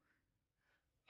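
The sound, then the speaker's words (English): Two faint, breathy inhales build up before a single loud, explosive sneeze bursts out at the very end. “bless you”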